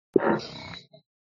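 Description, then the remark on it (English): A single low, groaning chair creak, fairly loud, lasting under a second with a rough, almost flatulent rasp, followed by a tiny squeak. No one speaks. “no, that was my chair.”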